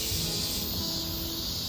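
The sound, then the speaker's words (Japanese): A cicada that has flown in buzzes in a steady, high-pitched drone that holds at an even loudness throughout, with no talking over it. “あれ飛んできたセミさんがすごい声です四大テノールになれるよ”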